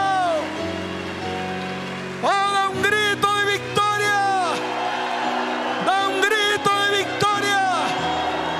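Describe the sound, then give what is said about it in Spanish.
A church audience applauds in a steady, dense wash of clapping that lasts throughout, with loud rising whoops and shouted cheers bursting out over it in two clusters. “Suelte la Biblia, y dale fuerte ese aplauso.”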